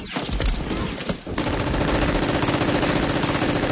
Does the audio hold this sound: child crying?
no